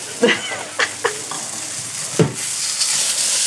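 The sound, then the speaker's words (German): Sausages sizzle steadily in a hot pan on a stove, browning quickly, a bright hissing crackle that grows denser and louder toward the end, broken by a few sharper pops and clicks early on. “die Würstchen gehen äh, seitenmäßig gerade schon sehr, sehr schnell, werden sehr schnell dunkel”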